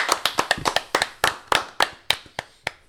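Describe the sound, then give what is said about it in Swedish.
Brief applause from a small group applauding all of themselves, a run of sharp, distinct hand claps that starts quick and uneven, then thins out and slows toward the end, with no talking over it. “Applåd till oss alla.”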